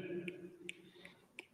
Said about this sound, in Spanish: tronando los dedos. Ahí está. Eso, ese era el, escenario que quería que, escucharan.